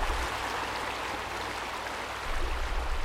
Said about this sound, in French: Avec toute l'eau qui est tombée du ciel, la rivière est énorme et fait beaucoup de bruit.